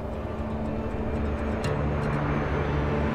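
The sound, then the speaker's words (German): A loud, steady roar of aircraft overhead at London Luton Airport fills the whole stretch, a dense rumbling wash with droning engine tones running underneath, no voices present. “An diesem Morgen hört Colin nicht nur das Tosen der Flugzeuge über ihm, sondern auch ein metallisches Knattern, das sich bedrohlich nähert”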